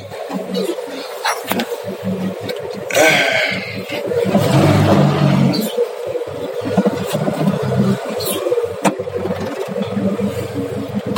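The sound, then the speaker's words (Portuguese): A car engine, just started after two pumps of the accelerator, runs steadily, its low rumble swelling briefly as if revved before settling back into a rough, uneven idle. “Pegando meu carro aqui.”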